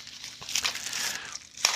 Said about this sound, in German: also, lieber Hörer, wenn das kein Mehrwert ist, ihr habt jetzt die ihr hört jetzt live, wie ich mein, mein Säckchen öffne. Da ist nämlich der Lokstempel drin.